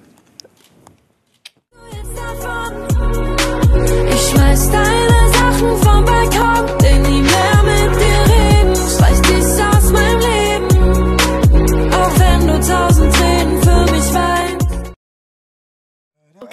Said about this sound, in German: Und ähm, an alle, die den Song jetzt nicht kennen und den unbedingt nochmal hören wollen, hier ist ein kleiner Ausschnitt.